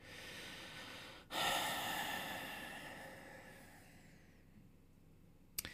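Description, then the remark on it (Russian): A loud exhale gusts straight into the microphone, starting abruptly and slowly trailing off into a long, noisy breath, followed by a brief snort-like click at the end. “Вы еще скажите, не сопи в микрофон, да, и не дыши вот так, знаешь, это разочарованно.”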